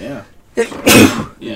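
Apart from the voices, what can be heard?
sneeze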